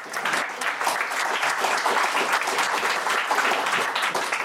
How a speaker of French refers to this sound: On l'applaudit, bien sûr.